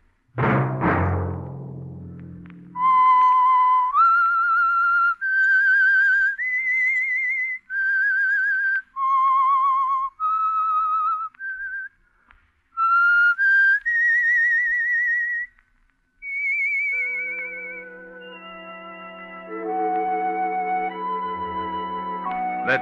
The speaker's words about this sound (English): that whistle be your signal for the Signal Oil program, The Whistler, each Monday at 9.